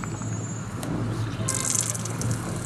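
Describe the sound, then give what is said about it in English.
Water streams steadily from a push-button public drinking fountain, an ornate dome topped with dolphins and held up by four figures of ladies in robes; a continuous splashing flow that brightens as it hits and fills a bottle, with no voices. “Water's coming out of this dome where there are these dolphins on top, and the dome it's held up by four ladies in robes.”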